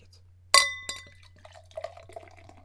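A sharp glass clink rings out with a bright, lingering tone, then a second lighter tap, followed by the soft bubbling trickle of Urbanus Festmerzen beer being poured into a glass.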